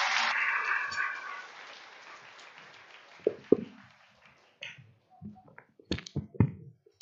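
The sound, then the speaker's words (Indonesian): A burst of audience applause, dense and crackling at first, quickly thinning out into a handful of scattered, individual claps before stopping. No one speaks. “Tepuk tangan sekali lagi.”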